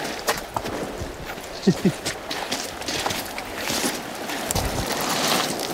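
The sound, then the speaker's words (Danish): Sea water washes and splashes against rocks in a steady, hissing roar that swells louder toward the end, with a few sharp knocks and a faint voice briefly underneath. “i det øjeblik, bølgen kom, som ville have gjort ham fuldstændig øh, gennemblød, så sprang du lige op på et par sten.”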